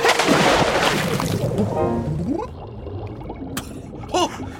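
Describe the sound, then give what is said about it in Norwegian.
A loud rushing splash of something diving down from the air into the sea, then a steady churning and bubbling that fades, with a few gurgling bubble pops near the end. “Jeg stuper ned, slik jeg så det forrige luftvesenet gjøre.”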